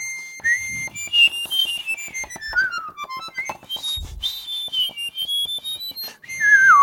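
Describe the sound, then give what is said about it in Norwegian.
Someone whistles a wavering, sliding melody that swoops up and down, while a steady, very high-pitched tone hums continuously above it, like two whistles sounding at once. “Og, da, og, det som er gøy med det, er at du kan f.eks. plystre samtidig med der. Det høres ut som to som plystrer samtidig, og det kan jo være artig.”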